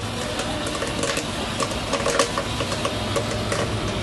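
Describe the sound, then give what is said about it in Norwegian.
A popcorn machine at the cinema in Kulturhuset in Oppdal, popping popcorn for a horror film festival, runs with a steady mechanical whir and hum, overlaid by scattered sharp pops and clicks at irregular intervals, fairly loud and continuous throughout. “Hører vi lyden av popkornmaskina her, Morten Haagensen.”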